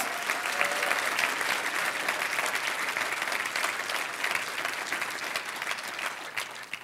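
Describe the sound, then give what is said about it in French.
A large crowd applauds steadily in support of friends in France who are following along, a dense wash of clapping that stays loud and even for several seconds before beginning to thin out at the very end. “est-ce qu'on peut, par nos acclamations, manifester notre soutien à nos amis qui nous suivent de la France?”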